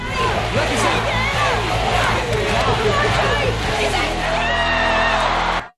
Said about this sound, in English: Who are these people? Why are they cheering?